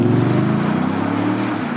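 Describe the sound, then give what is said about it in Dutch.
An eight-cylinder V8 car engine runs with a steady, deep rumbling drone, loud throughout, its tone shifting only slightly, with a faint airy whoosh and no voices. “Ja, acht cilinders, V8.”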